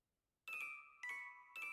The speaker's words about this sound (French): Le doré a un son qui lui est propre, celui de la chute des pièces sur le tas d'autres pièces